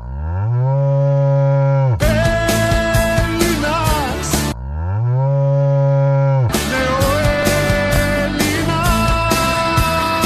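A cow moos twice, each a long, loud, low drawn-out call, and after each moo a burst of rhythmic, busy music with a steady beat follows.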